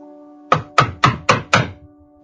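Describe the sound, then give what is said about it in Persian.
Five quick, evenly spaced knocks on a door, each a solid thump with a short decay, over a faint steady hum; no one speaks. “کسی به در می خوبد”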